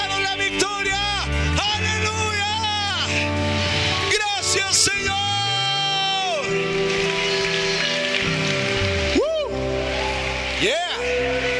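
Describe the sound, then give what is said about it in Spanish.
An audience claps and cheers continuously for the King of Kings and Lord of Lords, a dense wash of applause with loud whooping shouts rising and falling in pitch over it throughout. “yo quiero que le des el mejor aplauso y el mejor grito al Rey de Reyes y Señor de Señores”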